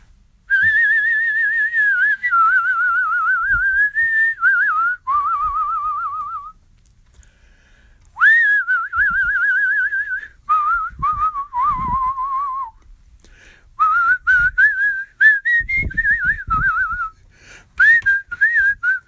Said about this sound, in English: You know, when I'm down in the dumps, I feel like whistling. And sometimes I just whistle.